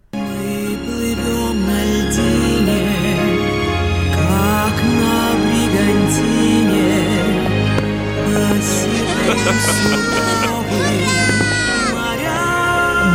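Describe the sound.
A woman sings a gentle lullaby from the third Umka cartoon, "Umka on the Christmas Tree", a repeat of the song from the first Umka cartoon, with a soft, wavering voice over full instrumental accompaniment, steady and fairly loud throughout.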